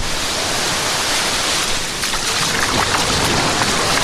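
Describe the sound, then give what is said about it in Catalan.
Two people's feet splash and wade as they enter shallow sea water at a beach, a steady loud wash of water with a few sharper splashes in the second half; no one speaks. “Que xulo, Hem entrat junts a l'aigua.”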